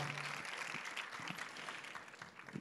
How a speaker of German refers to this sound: Ihr dürft ihnen gerne einen Applaus geben, ihrer Tochter heute auch.